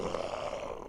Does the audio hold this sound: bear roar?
yes